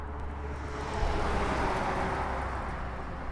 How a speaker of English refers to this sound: Near that, cars zoom by on the highway. It's much busier than when he first started farming in the 1950s.